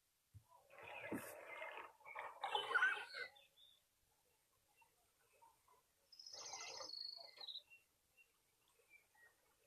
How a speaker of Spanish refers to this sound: Mira, tiene ranas, escuchar, también hay patos y pájaros.